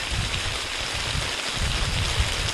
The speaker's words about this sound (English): but the rain is coming down pretty good. I think you can probably hear it.